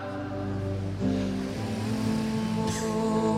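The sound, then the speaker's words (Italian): A scooter's small engine drones steadily, its buzzing pitch shifting slightly as it moves, loud and continuous throughout with no voices. “5% motorino.”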